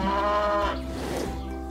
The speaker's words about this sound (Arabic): وحاول إيقاظها استيقظي يا بقرتي استيقظي فنهضت البقرة من مكانها في الحال وأخذت تنفس عن غضبها بالتنفس بصوت عال